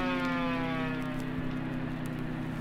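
A loud siren blares continuously, holding a steady, reedy wailing tone with no break, and nobody speaks over it.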